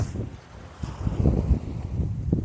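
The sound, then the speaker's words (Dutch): A steady low roar of the sea, heard while walking by it, carries through, mixed with gusty wind buffeting the microphone, swelling slightly midway with no voices present. “Misschien hoor je het geluid van de zee op de achtergrond waar ik nu op dit moment loop.”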